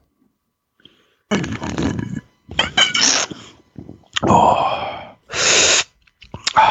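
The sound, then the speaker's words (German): Loud slurping through a straw in a series of irregular wet bursts, with lip smacks between them and a brief exclamation from a voice near the start. “Dieses Geräusch, ne? Mich schmatzen und schlürfen zu hören.”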